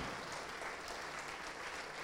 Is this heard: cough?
no